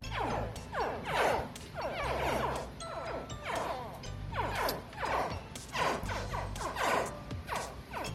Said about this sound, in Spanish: son las crías de cocodrilo, muy bien.